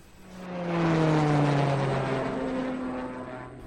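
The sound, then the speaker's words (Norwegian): A loud propeller aircraft engine drones in a hangar with a steady humming buzz, swelling in the first second and then holding strong with a slight downward pitch drift. No one speaks. “Ja, da har vi beveget oss eh, vekk fra dere den litt, litt bråkete hangaren og vekk fra flyene,”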